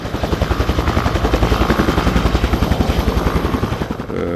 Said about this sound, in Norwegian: Og så kommer det et helikopter som henger over meg. Og så tenker jeg at Eh, de må låre en vaier, og så heise meg opp, og jeg roper og skriker. Men de kunne selvfølgelig ikke høre meg,